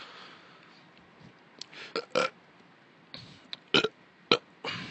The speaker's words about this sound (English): First, burp into the boom mic. Normally, I edit burps and coughs and sneezes out. Maybe I'll leave that in. See what uh, see what that sounded like. How my how my burp into the boom sounds like.